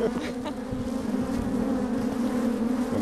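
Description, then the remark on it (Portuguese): A steady, dense buzzing of many honeybees in a hive, a continuous droning hum with a low pitch that stays even throughout, moderately loud with no talking. “O som das abelhas é, é, é, é assim.”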